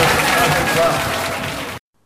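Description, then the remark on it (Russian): Loud, dense, stormy applause from a large audience fills an auditorium as the winner of the 'Educator of the Year' nomination is announced, with a voice faintly buried beneath the clapping, before the sound cuts off abruptly. “за бурными овациями практически не слышно имени победителя.”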